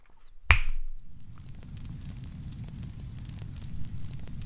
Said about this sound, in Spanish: vamos a encenderla para escucharlo, encender la hoguera, para escuchar la carta al, al calor de la lumbre.